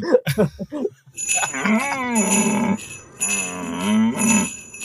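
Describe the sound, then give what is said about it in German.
Two long, loud, moose-like bellowing calls, each wavering up and down in pitch, with a short pause between them and a few brief sounds just before. “Klingt wie ein Elch, der sehr dringend Pippi muss.”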